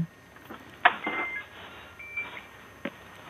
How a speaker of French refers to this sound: Ah, vous faites cuire des pâtes oui, en fait, ça y est. Ah, vous avez un minuteur.